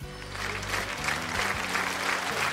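Audience applause: a steady, dense wash of many hands clapping at once, sustained loudly throughout with no voices on top, over a low musical drone.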